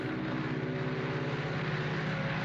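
Propeller airplanes drone overhead in a steady, loud engine roar with a low throbbing hum, continuous throughout and with no voices.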